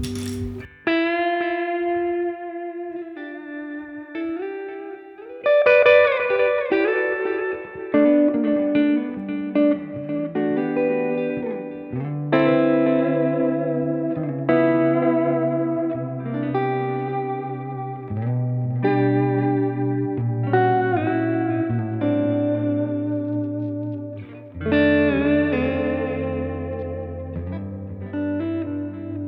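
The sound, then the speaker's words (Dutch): Electric guitar played through effects, ringing chords and sustained notes with a shimmering, slightly distorted tone, changing every few seconds over half a minute with no talking. “Die, die pick-ups die maken het wel af hoor.”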